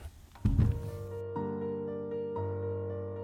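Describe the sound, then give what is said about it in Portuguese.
A door opens: a dull thunk of the latch, then a long, steady groaning creak that shifts pitch slightly twice as it swings. “Ouvi o som da porta se abrindo.”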